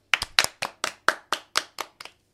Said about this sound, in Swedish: Vi klappar, vi klappar.